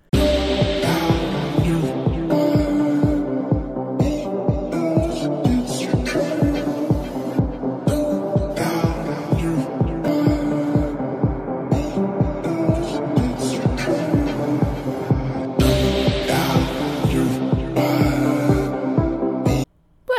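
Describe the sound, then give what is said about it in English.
An electronic dance track pounds along with a steady, throbbing bass beat at about two kicks per second, loud and continuous under layered synth tones, cutting out abruptly just before the end. “Ah, put on the EDM.”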